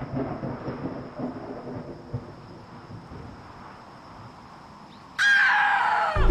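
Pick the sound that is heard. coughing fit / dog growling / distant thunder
distant thunder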